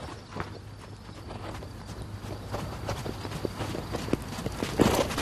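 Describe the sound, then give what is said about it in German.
Hooves of a young mare being trained as a school horse clip-clop at a steady walking pace, a string of sharp knocks over a low background hum, with one louder clattering step near the end. “arbeitet mit einer jungen Stute an deren Ausbildung zum Schulpferd.”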